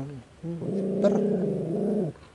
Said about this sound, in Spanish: ¿Por qué está tan enojado, Está como enojado. No sé qué le pasa. Eh, ladra. Este chabón. Este perro es rarísimo.